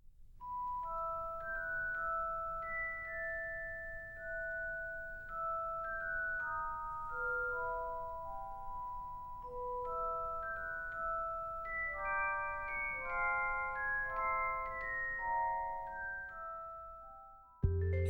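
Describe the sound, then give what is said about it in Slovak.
A melody from the Harry Potter film soundtrack played in bright, bell-like tones, with notes rising and falling in a flowing, mysterious line, steady and moderately loud with no voices, ending with an abrupt cut. “jasné, bol to Harry Potter.”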